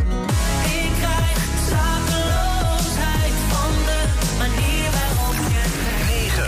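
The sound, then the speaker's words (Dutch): A Dutch pop song plays on the radio as number 10 of a chart countdown, at full volume, with a steady thumping bass line, layered synths and a sung melody carrying over a dense, continuous mix. “Nummer 10. … van ….”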